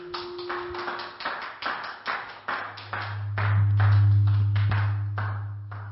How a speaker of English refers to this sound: Let's give God a hand clap of praise for his word. Amen.